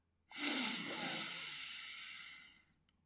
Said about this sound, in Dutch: Haal eerst even diep en rustig in vier tellen adem door je neus.